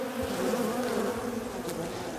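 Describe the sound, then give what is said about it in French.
A dense, steady drone of many bees humming together inside a hive, a continuous buzzing hum that fills the whole short stretch at a constant level. “On va entendre le, son d'une ruche, tiens justement, alors ça donne à peu près ça.”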